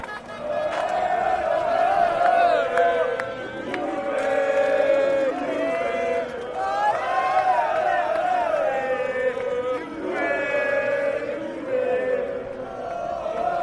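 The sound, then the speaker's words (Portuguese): Football fans sing together near the stadium in the city centre, a loud, continuous crowd chant, many voices carrying a rising and falling melody in repeated phrases, with shouts mixed into the steady roar. “Aqui que tem o real ambiente de futebol, torcida cantando e haja gogó”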